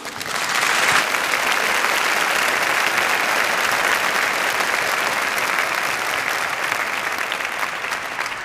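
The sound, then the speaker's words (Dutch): An audience gives a speaker warm applause before his talk, a dense wash of many hands clapping at an even, sustained level that holds for several seconds without a pause. “En zullen we hem eerst een warm applaus geven?”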